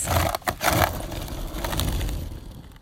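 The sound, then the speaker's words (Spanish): A skateboard drops in on a U-shaped ramp with a few sharp clacks and scrapes, then its wheels roll in a steady, gritty rumble for a couple of seconds, fairly loud, with no voices. “El sonido que acabas de escuchar fue de yo cayéndome en mi patineta.”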